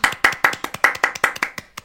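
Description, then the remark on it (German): A quick burst of hand clapping, around a dozen sharp claps in an uneven, brisk rhythm from a couple of people, fading slightly toward the end with no talking. “Ähm, oder wollen wir selber klatschen?”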